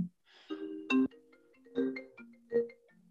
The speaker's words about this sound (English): Sorry about that. I had a phone call.